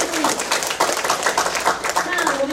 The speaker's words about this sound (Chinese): 那我们再用一个非常热烈掌声，谢谢我们大队人的机会。